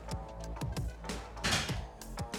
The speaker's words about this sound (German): Ich sehe gerade, ich habe noch meine Tür offen. Ich schließe die gleich mal.